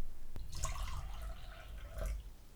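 Water splashes and trickles close by, with a short pour near the start and a second splash toward the end, small drips between them. Fairly quiet, and no one speaks.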